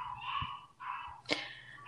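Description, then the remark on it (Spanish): A neighbour's dog makes intense, drawn-out whining cries in a few long bursts, with one sharp yelp-like burst near the end, faint and without any talking. “Antes de que empecemos, si escuchan sonidos raros, es el perro del vecino. No sé qué le están haciendo, pero suena muy intenso.”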